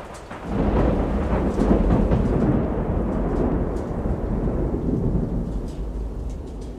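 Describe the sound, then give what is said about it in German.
A powerful thunderstorm breaking over the port of Bastia: deep, rolling thunder rumbles continuously over a dense wash of heavy rain, loud, with no voices. “Das Unwetter brach los mit aller Macht, als wir buchstäblich in letzter Sekunde den Hafen von Bastia erreichten.”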